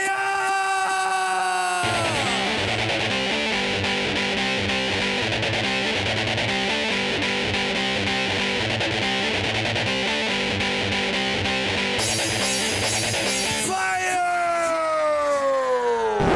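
A loud, energetic 1990s dance track with a pounding steady beat and dense synths, opening and closing on sweeping siren-like wails with shouted vocal bursts.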